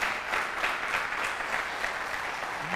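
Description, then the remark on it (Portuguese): An audience at a Christian sermon claps steadily when the preacher asks for applause, a dense, even wash of many hands with no voices over it, holding at a moderate level throughout. “Ah, dá um aplauso aí, pelo amor de Deus não.”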